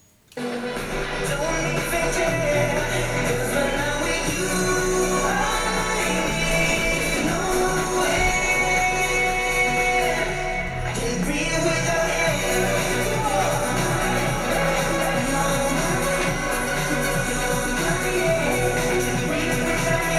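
A pop song plays continuously at full volume, with layered synths, a steady beat and a sung vocal melody, kicking in abruptly after a brief silence and carrying on without pause.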